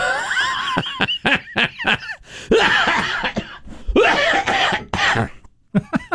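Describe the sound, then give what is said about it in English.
A loud coughing fit tangled with laughter at a joke: bursts of hacking coughs and wheezy, breathy laughs over about six seconds, with short gaps between the convulsive spasms. “My highest praise, the coughing fit.”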